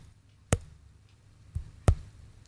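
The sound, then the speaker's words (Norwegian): Three quick, sharp flicks of a woman's fingers against a face, unevenly spaced, each a brief dull tap over a quiet background with no talking. “Hun driver og eh, knipser i, på fjes.”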